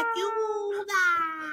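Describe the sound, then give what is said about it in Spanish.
A voice imitates a whale's plaintive cry, like a whale asking for help, holding two long, wavering wails with a brief break between them, fairly loud with no other sounds around it. “Suenan unas ballenas y le digo a Mir que me da ansiedad”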